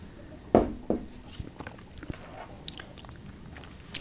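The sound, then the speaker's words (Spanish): Someone takes a few small sips of water: two sharper clicks and slurps at the start, then soft swallowing and faint wet mouth sounds, with no talking. “Perdón, tomo un poquitico de agua.”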